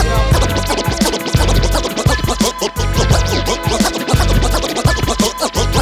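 A loud, dense hip-hop track with a booming bass beat and sharp turntable scratches cutting in rhythmically throughout, no talking over it.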